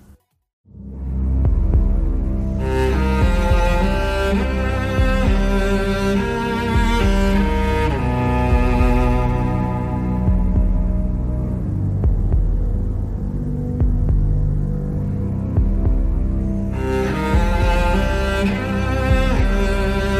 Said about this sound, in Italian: E ora un po' di musica.